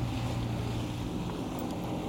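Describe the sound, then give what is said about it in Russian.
A small fishing boat with fishermen passes by, its motor droning steadily, a low engine hum mixed with rushing water and wind noise, with no voices. “Да, мимо нас поехала лодочка с рыбаками.”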